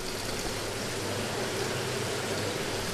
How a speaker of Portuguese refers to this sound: Parece que tem uma cachoeira, cara.